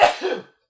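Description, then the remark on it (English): A single sneeze: a sharp, noisy burst followed by a short voiced tail that fades out within half a second, then silence. “bless you. bless you.”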